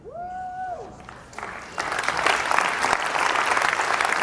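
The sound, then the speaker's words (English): A crowd breaks into applause that swells from a light patter into steady, loud clapping. A brief rising-and-falling whoop or whistle comes just before the clapping begins. “Don't clap for me to me, this is nuts.”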